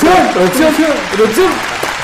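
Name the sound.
applause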